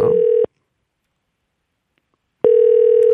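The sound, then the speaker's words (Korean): A telephone ringback tone as radio host Park Myung-soo phones a listener: a steady, buzzy electronic pitch sounds briefly, falls silent for about two seconds, then starts again, clear and fairly loud with no voices. “자, 1684님 전화 한번 걸어보겠습니다.”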